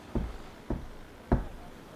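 Three distinct knocks on a door after ringing the bell brought no answer, evenly spaced with a slightly longer pause before the last and loudest one, with no talking.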